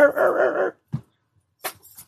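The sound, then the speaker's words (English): A dog lets out a drawn-out, whiny vocal sound, followed by a brief low yip and some snuffling, breathy noises, with no people talking. “and uh, puppers. Take it easy, buddy”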